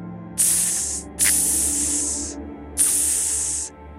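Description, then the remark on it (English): Three fairly loud hissing bursts, each under a second or so, a voice imitating the fizzing sizzle of something dissolving in acid, with brief pauses between them and no talking. “as if something is beginning to be dissolved in acid.”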